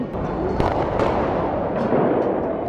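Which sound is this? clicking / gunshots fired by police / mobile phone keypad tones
gunshots fired by police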